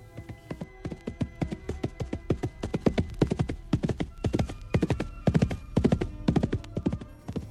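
A horse trots along with a steady, brisk clip-clop of hooves on a hard surface, each hoofbeat crisp, continuing in an even rhythm with no voices.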